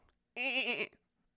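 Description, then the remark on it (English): A person imitates a goat with a single wavering, nasal bleat lasting about half a second, loud, with a quavering vibrato, followed by silence. “I don't know why I'm so good at making a goat noise.”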